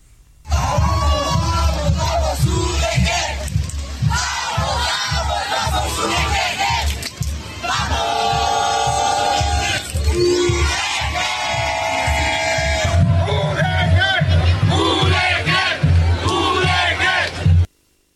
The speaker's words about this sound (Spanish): Así suena en estos momentos la marcha multitudinaria de la Universidad de Guadalajara en contra de los recortes presupuestales de Enrique Alfonso. Faro y del Congreso de Jalisco.